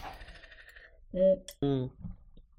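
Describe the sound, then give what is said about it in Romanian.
Two bright, ringing clinks of glasses touching in a toast of thanks, one right after the other, their tones lingering briefly before fading, with faint murmuring beforehand. “Și îți mulțumim tare că ai venit, să dăm noroc pe această cale.”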